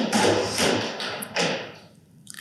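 Several irregular knocks and thuds against a huge wooden structure at a cemetery, pushed by gusts of wind from a storm outside, each landing with a broad rushing, rattling texture before things quiet down. No one speaks.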